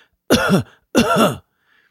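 Two loud, deliberate coughs, each a harsh, voiced burst under half a second long, separated by a short pause, with silence around them, imitating the cough of a patient with a primary cough headache.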